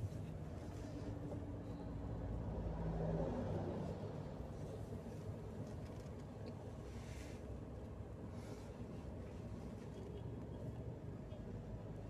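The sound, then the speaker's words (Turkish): A car drives home through traffic around 4 p.m. after a doctor's visit, with a steady low rumble of engine and road noise, swelling briefly early on, while faint whooshes of other vehicles pass by. “Onun için şu an eve doğru yola koyuldum.”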